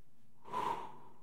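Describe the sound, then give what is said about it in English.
One deep, airy breath taken during a breathing exercise, rising and falling over about half a second against near silence, with no talking. “I breathe that breath back to you.”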